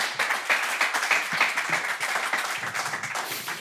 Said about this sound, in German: es ist vor allen Dingen dieser eine SPD-Abgeordnete, der hier sehr laut klatscht bei dem Thema Schuldenbremse.